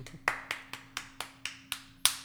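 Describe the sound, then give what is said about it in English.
A quick run of about eight hand claps in a steady, even rhythm, each a sharp crack with a brief tail, clapping to celebrate the blocking of a vaccine mandate for companies with 100 or more employees. The final clap lands a little harder, and no one speaks. “Oh yeah, and so since we're on this topic, uh, just want to clap one more time for that vaccine mandate block.”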